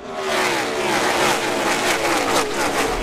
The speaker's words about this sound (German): Was sich aber nicht verändert hat, ist die Technik in den Autos. Teilweise aus den 60er Jahren, V8-Motoren mit 5,9 Liter Hubraum, Leistung ohne Ende, 725 PS und unfassbar laut.